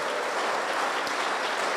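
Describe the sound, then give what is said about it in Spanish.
Steady audience applause for a group of young people, a dense, even wash of many hands clapping at a constant loudness with no individual claps standing out and no voices heard. “Démosle un aplauso a ellos, por favor.”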